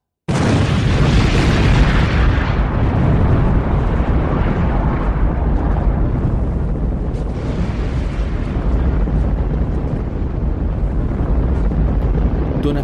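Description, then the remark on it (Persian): A massive homemade bomb explosion at Harvey's casino at 3:46 erupts suddenly, then a thick, rumbling roar sustains loudly for many seconds, heavy in low booming energy, with no voices. “از توی یک کامیونی که تو خیابون پارکه سیمکشی کردن به این بمب دستساز و منتظر دستورن رأس ساعت 3 و 46 دقیقه زمین لرزید”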